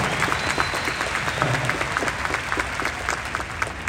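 Sustained audience applause for a magician, a dense, steady patter of many hands clapping at an even loudness for several seconds, with no talking over it.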